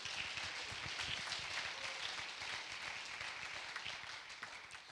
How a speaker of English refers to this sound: Would you clap your hands and thank God for it?